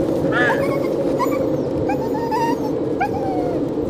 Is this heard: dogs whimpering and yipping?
yes